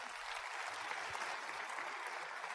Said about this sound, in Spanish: Y vamos a darles un fuerte aplauso desde acá.